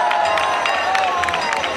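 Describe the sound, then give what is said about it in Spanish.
A crowd lets out a loud, sustained shout, many voices cheering and calling together, with brief swells and a few scattered claps throughout, as oxen give a final push to a cart and halt it in its place at a sanctuary. “Bueno, pues eso ha sido, ...ese grito que, que, hemos escuchado ha sido un arreón que, ha pegado, que han pegado los bueyes, que ha pegado la carreta, para pararse ya en su sitio.”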